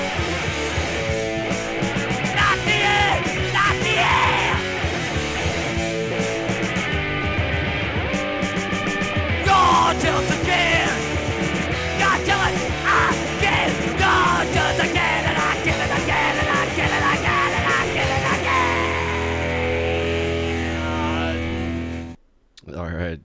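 Loud, distorted punk rock played on M-Crow Radio, with shouted, raw vocals over driving guitars and pounding drums, playing continuously at full volume before cutting off abruptly near the end.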